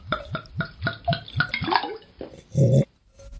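Champagne poured into a glass: a quick series of hollow glugs whose pitch rises as the glass fills, ending in a short fizzy rush, with no voices.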